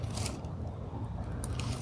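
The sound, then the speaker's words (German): A continuous crinkling and rustling of a thin, empty plastic snack bag being handled, with scattered crackly bursts throughout and no voices. “Deswegen habe ich ja meine Tüte.”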